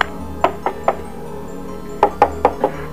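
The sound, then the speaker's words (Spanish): Someone knocks on a door in two bursts: three quick raps, a short pause, then four more, sharp against a quiet background. “Tocar la puerta.”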